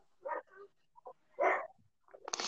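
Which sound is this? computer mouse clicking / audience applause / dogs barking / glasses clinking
dogs barking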